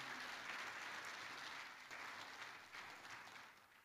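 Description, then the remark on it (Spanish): A church audience claps steadily for about four seconds, applauding the young people and adults who are graduating: a dense, continuous wash of many hands with no voices standing out, fading slightly toward the end. “Denle un fuerte aplauso a los jóvenes que están acá, a los adultos que se gradúan también.”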